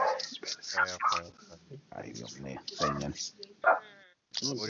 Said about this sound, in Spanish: Mira, eh, mira, de quién es el perro. De quién es el perro.